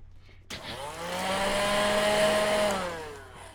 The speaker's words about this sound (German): okay. Mach mal Staubsauger an. Einen Moment.